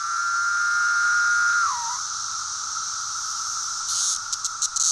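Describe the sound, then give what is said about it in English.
A swarm of cicadas in full chorus in trees about 25 feet tall, the mic on a boom pole right up next to them: a loud, unbroken high-pitched buzzing drone with a steady whine that dips briefly, then a few rapid fluttering pulses near the end. No voices. “I found a few spots with these kind of 25 foot tall trees or so, and then I could get right into the swarm and I'd get my mic up on a boom pole or climb the tree a little bit, and then I could get the mic right up next to them.”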